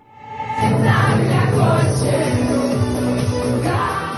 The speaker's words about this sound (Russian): То, что вы слышите сейчас, это вечеринка по случаю дня рождения моей подруги